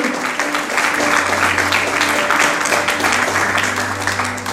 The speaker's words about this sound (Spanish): Alguien, por favor, apláudale a nuestro Dios que escucha la oración.